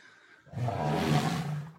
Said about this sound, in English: I was thinking about how an elephant complains, and then I was also thinking about how my mic wouldn't be able to pick it up. So insert elephant complain sound.